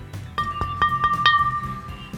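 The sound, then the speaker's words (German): About five quick knocks on the thick glass of an old CRT monitor in an uneven rhythm, each tap leaving a faint ringing tone that hangs between strikes. No one speaks. “Jetzt bräuchten wir so ein Geräusch, so ein Klong, Klong, Klong, Wenn da dran klopft, weißt du, ist immer schönes Geräusch.”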